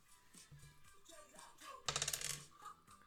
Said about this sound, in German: würfeln Sie für mich.